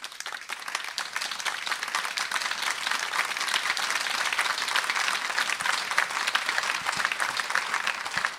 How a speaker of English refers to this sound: There should be some kind of uh, applause. I don't know if it will be picked up by this microphone.